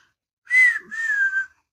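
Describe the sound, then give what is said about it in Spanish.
A person whistles the whistle melody of a song, one short gliding note followed by a longer slowly falling phrase, with no talking around it. “la última que sacaron con el chiflidito.”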